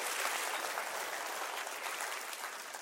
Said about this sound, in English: Can you clap your hands to that and say, Amen?